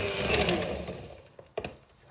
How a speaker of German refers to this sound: Ähm, das ist sehr hartnäckig zum Umrühren. Ich merke das gerade bei der Benutzung dieses Handmix-Rührgeräts. Das ist mir ein bisschen sehr hartnäckig.